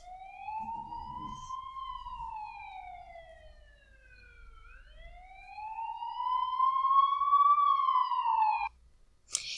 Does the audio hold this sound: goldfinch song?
no